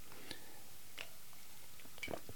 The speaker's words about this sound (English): Sorry, um, a quick slurp of my spiced tea. Very nice. Might have mentioned it before. If not, Palanquin, I think is the name of it.